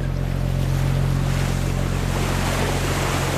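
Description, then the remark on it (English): Steady ocean water sloshing and washing against a ship's steel hull with the motion of the waves, with a constant low engine-like rumble and breezy noise throughout, no talking. “He looks over in my direction, and it's my head hitting the steel hull, back and forth with the motion of the waves.”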